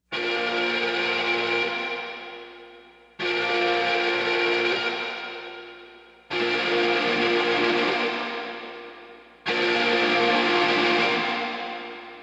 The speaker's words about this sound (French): Pendant les couplets, les guitares sonnent exactement comme une alarme. Oui oui, une alarme. Écoutez ça.